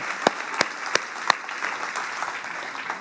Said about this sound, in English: Hey, would you give a bigger applause for the King of Kings and the Lord of Lords who has been faithful, faithful, faithful, faithful, faithful?